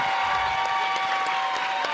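A large crowd in the Columbia Central gym applauds steadily on senior night as senior Omari Franklin is escorted out and honored, dense overlapping clapping holding at an even, loud level throughout, with a few sharper claps standing out and a faint murmur of cheering underneath.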